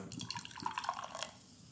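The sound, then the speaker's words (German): Beer splashing and trickling into a glass, a quick bubbly pour with scattered drip-like clinks for about a second before fading to quiet. “Okay, ich gieße das jetzt mal ein, wir gucken ja. mal die Farbe.”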